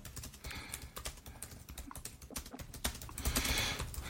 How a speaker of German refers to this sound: Auch mal gerade ja, tippen hier in den Chat.